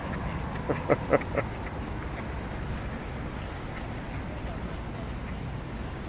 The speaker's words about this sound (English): so, this is the river Moskva and uh, the sights are beautiful. Uh, you, you have some Russian ducks there.